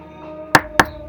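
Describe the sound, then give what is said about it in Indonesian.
Two sharp knocks on a bedroom door, about a quarter second apart, clear against faint background hum. “suara pintu kamar diketuk”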